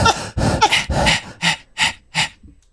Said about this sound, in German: Genau, wir haben gerade Sport gemacht, deswegen hört ihr ab und zu mal ein leichtes Keuchen im Hintergrund.